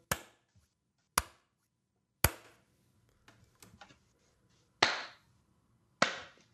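Five sharp, loud single hand claps made to sync a recording, spaced at irregular intervals with a short ringing decay after each, and faint rustling in the gap between the third and fourth.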